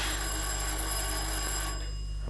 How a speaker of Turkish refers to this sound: Eh, kapı çalıyor. Kapı çalıyor duymadın mı? Kalkıp açsana şunu.